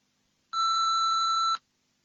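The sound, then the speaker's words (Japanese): A single steady electronic beep, about one second long, with a clean tonal pitch and sharp start and stop, like an answering machine tone before a message, surrounded by silence. “留守番電話のメッセージを聞いています。”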